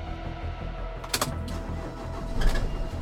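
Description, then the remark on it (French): A car engine turns over and catches in a hotel parking lot as a man gets into his car to leave, settling into a low steady rumble, with a couple of sharp mechanical clicks along the way. It sounds moderately loud, and no one speaks. “Ce 15 avril, il est 10h19 quand il s'engouffre dans sa voiture et quitte le parking de l'hôtel.”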